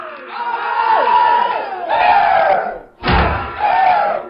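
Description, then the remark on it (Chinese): Loud, hoarse Qinqiang opera singing from the theme of the film White Deer Plain, music of Chen Zhongshi's home region, with shouted, strained vocals and sliding pitches, sustained in long phrases; it breaks off briefly, then bursts back in with a sharp, forceful cry. “这嘶吼的秦腔是陈忠实家乡最具代表性的音乐，也是陈忠实本人最喜欢的音乐形式之一。”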